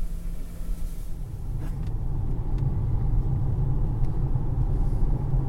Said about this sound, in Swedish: Det krävs inte lång stund bakom ratten förrän det står klart att Polestar 2 är en rasande trevlig bil att köra. De starka elmotorerna gör den pigg.